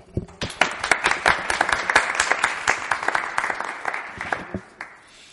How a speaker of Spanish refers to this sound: Bueno, un aplauso, ¿no?